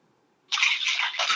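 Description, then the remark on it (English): Bathwater splashes and sloshes loudly in a bathtub in Sydney, Australia, starting abruptly after a brief quiet moment and continuing in a busy, churning burst for about a second with no talking. “make some splashes”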